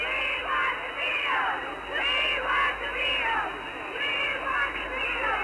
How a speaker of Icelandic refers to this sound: They're arriving now. The comparative in the background screaming the limousines are pulling in with them coming in. There are four, five Cadillac limousines pulling in. The teenagers are going absolutely wild.